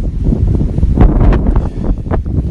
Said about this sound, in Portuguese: O vento corta frio, mas com bastante casaco a gente fica tipo, aqueles ossinhos, é, bonecos de neve, né? Não sente nada, só caminha. Só sinto frio no rosto mesmo onde pega o vento.